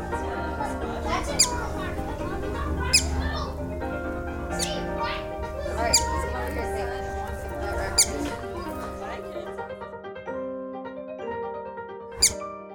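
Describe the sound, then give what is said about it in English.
Soft, high-pitched chirps from Stu, a whistling duck, repeat at a steady pace, each a short bright burst, over a low hum with a faint voice murmuring in the background. “He's chirping. He's clearly chirping.”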